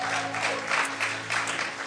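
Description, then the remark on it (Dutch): A church audience applauding the band steadily, a dense wash of many hands clapping with a few swells in loudness, over a faint low hum with no voices heard. “Let's give the band a Laten hand we de band een applaus geven.”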